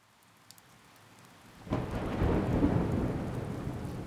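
rain

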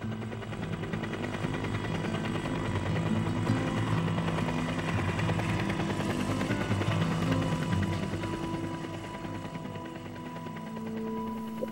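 helicopter rotor blades

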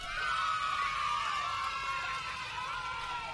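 audience applause and cheering

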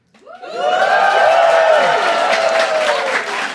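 audience applause and cheering

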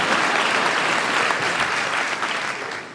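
audience applauding

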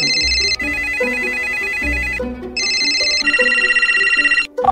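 phone ringtone ringing

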